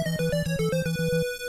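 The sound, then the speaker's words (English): A brief 8-bit video game player death jingle: buzzy chiptune tones step downward over a rapidly pulsing bass note, then settle on a final sustained tone. Loud and clear, with no voices. “That's the sound of you dying, bro.”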